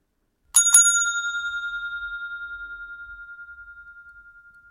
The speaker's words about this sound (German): Es gibt äh, unterschiedliche Töne. Wir haben hier einmal die Rezeptionsklingel.